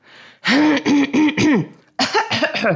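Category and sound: human body sound, throat clearing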